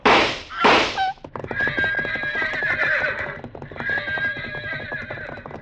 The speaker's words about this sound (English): the pack horses reared at the shots. I lunged to stop them, stumbled into Consuelo, grabbed her, and held on to keep her from falling. The half-mad animals carried Pasquales out onto the bridge and drove him along in front of their pounding hooves.